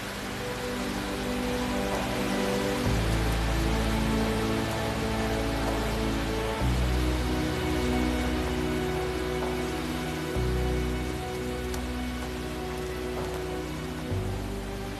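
Steady rain patters on surfaces outdoors during a hike, a dense continuous hiss with a low rumbling undertone that shifts every few seconds. No one speaks.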